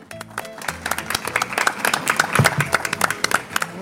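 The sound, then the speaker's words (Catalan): Dense, steady applause from a sizable crowd at the Plaça del Llibre by Valencia City Hall, Spain, many hands clapping at once in a continuous crackling patter, moderately loud throughout. “Va, des de la plaça del llibre, l'Ajuntament de València, un aplaudiment.”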